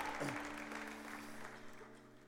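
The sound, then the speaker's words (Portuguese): A church audience applauds God's name during a prayer in a steady, dense wash of clapping that fills the whole moment, with a low sustained musical tone humming underneath. “vem sobre nós como igreja, nós te pedimos e aplaudimos o teu nome que é santo.”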